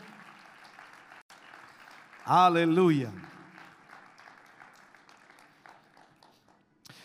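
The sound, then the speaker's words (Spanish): Steady applause from a large crowd clapping in praise to the Lord after a prayer fills the whole stretch, a dense even clatter of many hands, with one loud voice shouting out briefly partway through. “Fuerte ese aplauso de alabanza al Señor.”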